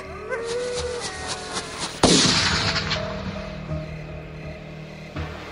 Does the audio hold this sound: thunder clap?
no